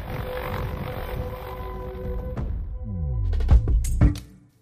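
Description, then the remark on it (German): A helicopter's engine drones with a steady throbbing rumble as it flies to the nearest town, its pitch shifting and swelling near the end with a couple of heavy thumps before quickly fading out. No one speaks. “Also ähm, sie, haben, sie haben Angst da, von diesem Druck, von diesem Leck und äh, fliehen, fliegen mit ihrem Hubschrauber in die nächste Stadt und setzen ein Alarmtelegramm ab.”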